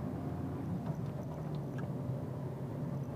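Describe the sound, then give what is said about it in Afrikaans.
Steady, low road rumble fills a car cabin while driving, a constant droning hum with faint rattles and ticks above it and no one speaking. “Luister na die ambiance van my kar terwyl ek ry en dan ek wil net gou hierso trek vir my wipe.”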